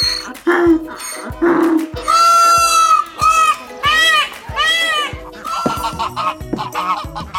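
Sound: donkey braying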